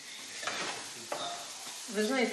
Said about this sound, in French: Je profite que l'électricité soit revenue pour préparer ce borch. Avec cette casserole, j'en ai pour trois jours.